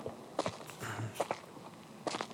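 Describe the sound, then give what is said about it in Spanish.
Slow, evenly spaced footsteps, about three pairs of soft scuffing steps on a hard floor, fairly quiet with no talking, as if someone is walking closer. “¿Lo escuchas? Sí, ya, se acerca.”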